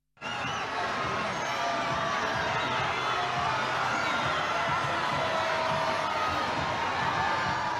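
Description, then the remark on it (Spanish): A large crowd cheers and shouts steadily at a street parade (cabalgata) welcoming Olentzero and Mari Domingi, a dense, unbroken roar of voices with high whoops and children's cries rising over it throughout. “ayer Olenchero y Mari Domingui fueron recibidos como auténticas estrellas de rock en las cabalgatas de nuestras ciudades”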